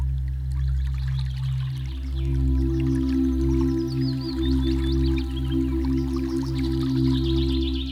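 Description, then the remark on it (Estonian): Water trickles and drips steadily, a babbling flow with scattered bright droplet sounds over a continuous low hum, with no voices present. “kuidas selle veevulin lihtsalt tuletab meelde liikumist.”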